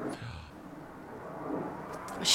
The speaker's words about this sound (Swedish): Nu kommer det mer flygplan. Ja, det är en hel armada där borta. De har såklart någon slags övning här nu ja. när vi sitter och pratar. Ja, vi hoppas det hörs ändå. Det här är väldigt unikt. Det brukar inte cirkulera flygplan ovanför här.